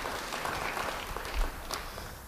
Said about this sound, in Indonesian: Amin. Beri tepuk tangan buat Roh Kudus. Haleluya.